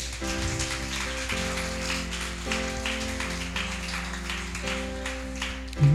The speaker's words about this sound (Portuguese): Então vamos aplaudir ao Senhor.